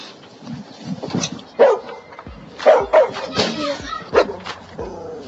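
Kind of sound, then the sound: animal, dog barking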